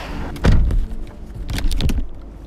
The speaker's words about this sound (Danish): vi sætter os i bilen.